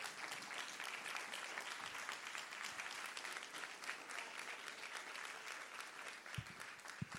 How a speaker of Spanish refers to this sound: Alguien dice gracias Señor. Alguien le da un aplauso al amor de Dios.